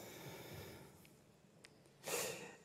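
A single deep, airy inhalation swells up loudly after a quiet stretch with a couple of faint clicks, a short breathy rush of noise that fades out quickly.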